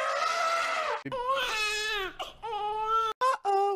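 A small whimpering moan, like an infant fussing: four or five drawn-out, wavering cries in a row with short breaks between them, fairly loud, with no talking.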